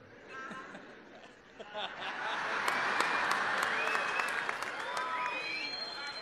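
A crowd applauds, quieter at first, then swelling into dense, steady clapping from about two seconds on, with scattered cheers and shouts mixed in until the end.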